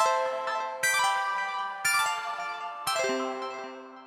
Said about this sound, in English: So maybe we can just play a chime and go straight into it.